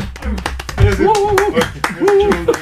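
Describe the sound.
A group claps in quick, irregular bursts of sharp hand slaps, with excited voices talking and calling out over the applause throughout.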